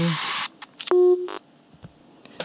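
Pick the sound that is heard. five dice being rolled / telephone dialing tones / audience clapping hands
telephone dialing tones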